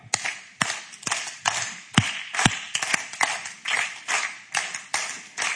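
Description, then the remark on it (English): Sections one and three of a group clap together, following a leader, in a steady, even rhythm, about two sharp claps per second, with slightly ragged, overlapping hits. It runs for several seconds with no talking. “We're going to clap because you're going to go clunk, clunk, plump, plump, nah, nah, like that.”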